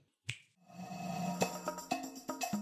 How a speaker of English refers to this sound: so that's an awesome answer go ahead and snap your fingers and make that happen